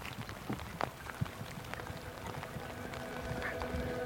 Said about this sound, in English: He makes it look like this cold rain is a warm shower.